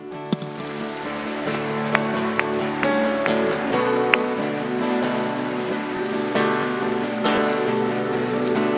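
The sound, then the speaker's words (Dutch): A church audience claps continuously in a dense, crackling wash of many hands, with steady sustained musical tones running underneath and no voices standing out. “En blijf doorgaan met klappen.”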